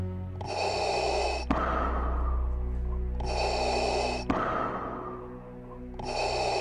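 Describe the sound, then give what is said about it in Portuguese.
Sharp, raspy breaths drawn in three times at a steady, labored rhythm, loud, with a low droning hum running underneath throughout. “quando ele termina de falar, tu escuta uma respiração puxada.”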